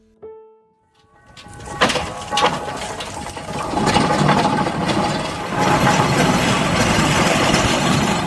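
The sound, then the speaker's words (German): A brief tonal note, then a historic steam-powered farm traction engine, a locomobile, starts up and runs loudly, with a steady, busy mechanical chugging and clatter. No one speaks. “So klingt ein Lokomobil, das mit Dampf angetrieben wird.”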